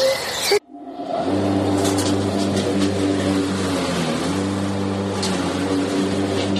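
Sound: lawnmower engine running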